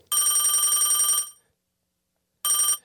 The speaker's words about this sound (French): On a un appel encore. Euh, qui ça? Écoute, je sais pas, le téléphone est rouge.